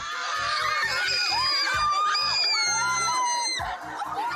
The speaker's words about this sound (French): Des cris, des pleurs, des sauts de joie, des embrassades, toute la panoplie des expressions y passe.